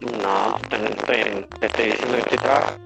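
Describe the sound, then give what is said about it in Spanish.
A voice talks in Spanish but comes through robotic and distorted, with a metallic, echoing edge, over a poor internet connection, while a low steady hum runs underneath. “Se escucha robótico.”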